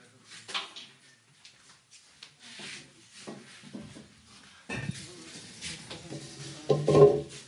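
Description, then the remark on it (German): Wooden chairs are picked up, carried and set down as people bring them to the front, with irregular scrapes, rubs and hollow knocks, and a louder clatter near the end, while faint voices murmur in the background. “Nehmt euch mal einen Stuhl mit.”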